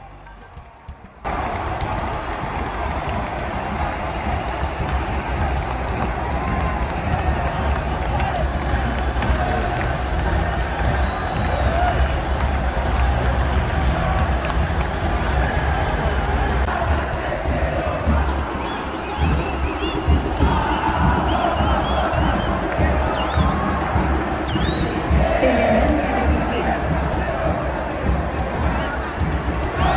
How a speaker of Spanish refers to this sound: Los goles seguían cayendo y la gente no dejaba de aplaudir, brindar, gritar y estallar en un cúmulo de emociones. La barra de local no dejó de alentar, cantar y sonar todos sus instrumentos, haciendo todo un carnaval.